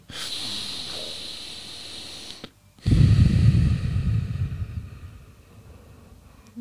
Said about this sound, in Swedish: Men hemligheten till att putta bra är att du måste ta tre djupa andetag.